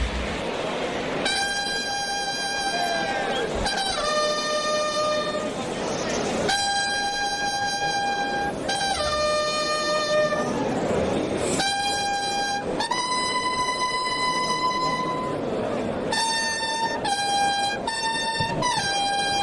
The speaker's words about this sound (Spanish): Ahora, pañuelo blanco, ahí va el clarín.